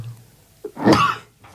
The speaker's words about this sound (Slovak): Tak, Na zdravie.